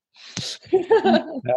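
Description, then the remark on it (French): A single short, sharp sneeze bursts out, followed right away by a few voiced, laugh-like sounds. “À tes souhaits.”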